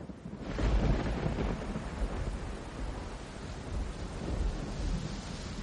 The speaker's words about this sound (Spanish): Uy, está empezando a llover ya.